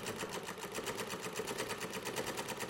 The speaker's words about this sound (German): Ah, ich weiß. Warten Sie, ich nähe nur eine Kleinigkeit um.